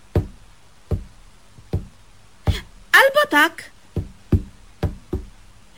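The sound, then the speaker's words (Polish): Footsteps of a woman demonstrating walking forward, step by step, at a steady, even pace, about nine sharp thumping steps in a row, with a short burst of speech breaking in partway through. “A pewnie, krok za krokiem.”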